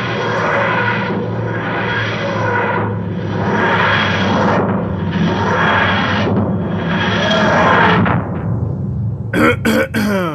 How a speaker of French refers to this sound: Alors, euh, insérez ici le son de l'intérieur du Tardis.